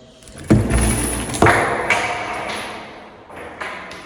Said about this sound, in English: Heading up to the prison. Just open the gates. Well, it sounds funny when I do this because it's chains and it's bars